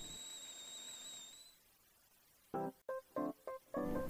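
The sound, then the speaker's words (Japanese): A kettle's shrill, steady steam whistle sounds for about a second and a half, then cuts off into quiet before a series of short, bright tonal notes follows. “いい音なります。湯気の音。”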